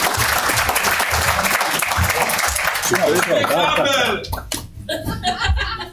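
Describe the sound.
A crowd breaks into steady, loud applause for a guest invited to talk about basketball, dense clapping that runs for several seconds before thinning out, with some voices and chuckles mixed in toward the end.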